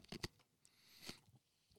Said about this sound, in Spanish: Déjame comer hielo tranquilo.